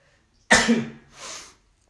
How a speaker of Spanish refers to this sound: no tengo el virus, tranquilos, solamente estornudé por el polvo que hay aquí, pero no tengo el virus, así que no, no se preocupen